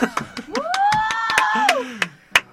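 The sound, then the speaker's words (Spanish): Brief, scattered applause celebrating passing 2,400 Twitter followers: roughly a dozen sharp, irregular claps, with a sustained rising-and-falling vocal whoop over the middle of it. “¡Un ¡Uh! aplauso!”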